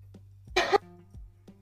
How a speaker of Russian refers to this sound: Э, прошу прощения. Хорошо, в следующий раз я буду чихать громче.